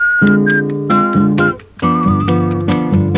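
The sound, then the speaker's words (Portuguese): A man whistles a lilting Brazilian samba melody in clear, sustained notes over a band's rhythmic accompaniment of strummed chords and light percussion, with a brief pause before the tune resumes. “Esse carinha que está assobiando aí”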